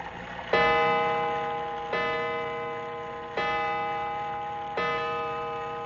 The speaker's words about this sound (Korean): 이제 자정을 알리는 종소리가 들리고 갑자기 불이 꺼지고